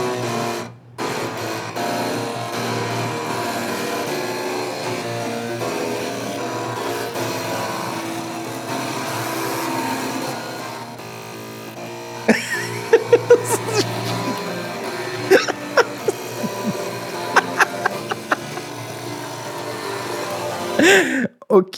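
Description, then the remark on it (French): Twelve floppy disk drives lined up together buzz out a steady stream of tonal, melodic notes with a gritty mechanical edge. Sharp clicks and ticks cut in during the second half. “Mais euh, déjà, déjà qu'on qu'on fasse l'effort d'aller comprendre comment on produit du son avec un floppy disk.”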